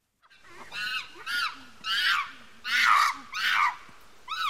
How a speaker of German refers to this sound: Affen, ja, sehr gut. Geräusch hat Tina schon mal gut erkannt.